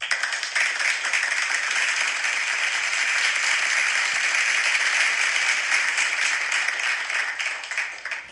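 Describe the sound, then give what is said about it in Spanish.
Sustained audience applause, a dense, steady wash of many hands clapping at an even loudness for several seconds, with no voices over it. “Así que, señores, un aplauso y vamos a conocer todos los detalles de esta aventura.”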